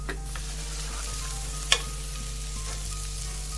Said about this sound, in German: Okay, wir braten heute die Zwiebeln und dazu braucht man viel äh, Pfeffer.